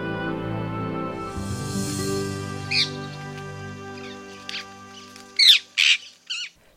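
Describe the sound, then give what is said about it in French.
A rose-ringed parakeet in Paris gives harsh, shrill screeches: one early squawk, then a quick run of three or four piercing calls near the end, loud as a soft musical bed fades out. “Plumage vert, queue longue, bleu azur et bec rouge et noir, cet oiseau peu discret aux allures de petit perroquet annonce aussi sa présence de son cri strident.”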